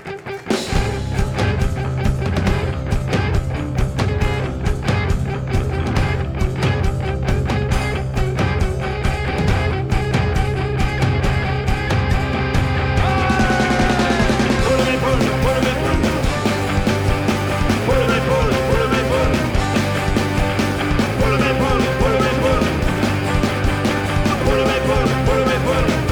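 A full, steady French song about hens plays on the radio station Prune 92 FM at constant loudness, with a dense band arrangement and a strong rhythmic pulse; the sound brightens partway through as the backing changes.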